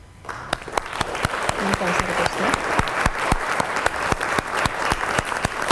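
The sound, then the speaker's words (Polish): A burst of steady applause on Tyfloradio radio, welcoming a guest's debut: many hands clapping in a dense, even patter that holds at full strength for several seconds with no voices over it. “No to tak, Doroto, na debiut i na zachętę takie oklaski”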